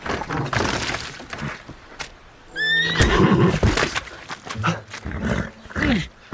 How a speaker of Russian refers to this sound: Простите, молодой человек, забыл сказать, это очень дружелюбный конь. Всегда готов к рукопожатию.